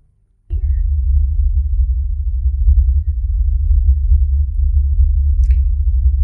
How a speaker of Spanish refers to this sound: es una especie de zumbido, como podemos oír, que no es, lo que no son esos infrasonidos. Eso es un zumbido acompañamiento, pues cuando se supone que hay una cámara fija, pues algo que vibra, un refrigerador, algo en la habitación